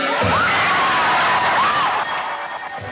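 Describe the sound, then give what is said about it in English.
A live concert crowd erupts in loud, sustained cheering after a brief moment of quiet, with shrill whistles and whoops rising over the roar, which eases slightly toward the end. “He seems a little terrified of the the energy of the crowd,”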